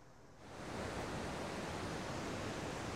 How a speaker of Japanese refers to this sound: はい、では曽木の滝のちょっと近くまで来ました迫力すごいですね今ちょっと近くまで来た音がちょっとすごいかもしれないけどどんな感じかっていうとこんなやすごいっすね迫力すごいな